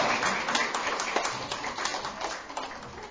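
An audience applauds two people who have just spoken, with a steady, dense patter of many hands clapping at once, holding a fairly even, moderate loudness for the whole few seconds with no voices standing out.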